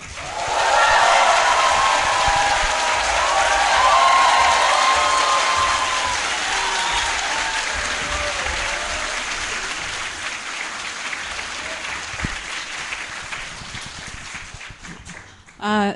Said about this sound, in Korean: 제가 한 분 한 분 소개해 드릴 때마다 정말 뜨거운 박수와 방금 저한테 보내주신 것, 그거보다 약간 낮게. 네. 그렇게 박수를 좀 쳐주시고 환영해 주시면 대단히 고맙겠습니다.